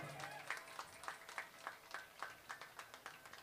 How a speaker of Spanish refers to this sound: El aplauso para él escultor